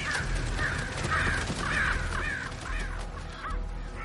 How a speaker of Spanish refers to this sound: Unos cuervos sobrevuelan la zona.